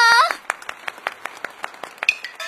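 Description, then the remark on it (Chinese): Steady, rhythmic clapping, about a dozen crisp claps at an even pace, following a brief high-pitched vocal sound at the start. The claps are moderately loud and sound alone. “嘿嘿，大家掌声响起来！”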